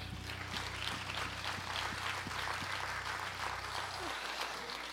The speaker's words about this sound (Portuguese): Graças a Deus. Vamos aplaudir ao Senhor.